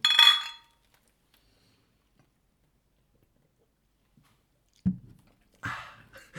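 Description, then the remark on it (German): Beer glasses clink together in a toast, a bright ringing chime that fades fast, followed by a long silence and then a couple of soft knocks and rustles near the end. “In diesem Sinne, schön, dass ihr da seid. Prost.”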